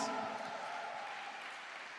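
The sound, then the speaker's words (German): A crowd applauds steadily for a couple of seconds for the audience in Marzahn, a dense wash of clapping that stays fairly even, with no clear voices standing out. “Ihr könnt übrigens Marzahn mal einen Applaus geben, die sind jetzt nämlich immer parallel zu uns.”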